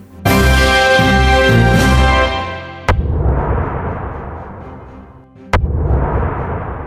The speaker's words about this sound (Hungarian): Ez egy atomrobbanás hangja. A világ egyelőre abban bízik, hogy valódi, éles helyzetben ilyet soha többet nem kell hallani.